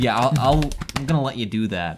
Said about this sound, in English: That's the sound of me patting myself.